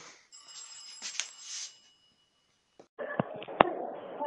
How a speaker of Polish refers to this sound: O, no, córa dzwoni. Córa dzwoni.